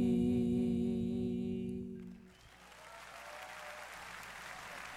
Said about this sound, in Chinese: 好的，很非常谢谢大家热情的掌声啊！